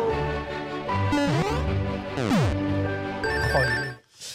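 A short electronic jingle of bright, ringing bell-like tones with sweeping pitch glides, loud, playing alone for about four seconds before cutting off abruptly.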